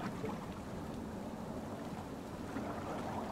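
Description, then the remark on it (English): Ocean waves wash and swell steadily around a boat, a continuous low rumbling surge with no distinct breaks, even in loudness, with no voices. “the strength you show in this moment is commendable as the relentless ocean continues to swell around your boat.”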